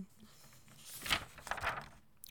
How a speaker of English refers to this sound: Oh, you can hear that paper turning, can't you? I took my notes on paper this week.